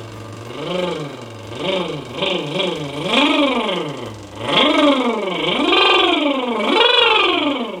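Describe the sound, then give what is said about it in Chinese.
A voice demonstrates a lip-trill singing exercise that imitates a motorcycle motor, as if twisting the throttle by hand. The buzzing drone swoops up and down in pitch several times, each rev climbing higher and louder, with no other talk. “我先给大家做一个示范，我们可以手呢先模仿一下摩托车的这个马达，就可以这样去啊拧那个油门哈，准备。”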